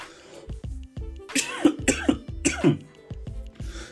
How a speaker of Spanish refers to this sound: Este todo esta tos fue patrocinada por Broncolin. Broncolin, la tos para tus podcasts o algo así.